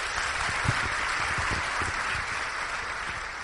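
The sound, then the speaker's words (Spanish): Sustained applause from a crowd, a dense, steady wash of clapping that holds at a constant loud level for several seconds, with a few sharper individual claps standing out. “Un aplauso fuerte.”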